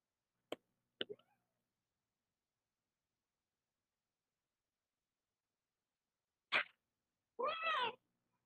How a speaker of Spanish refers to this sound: No recuerdo, por si escuchas mucho ruido y quejidos de una gata chillona, se debe a que este ejercicio lo hago directamente sin edición.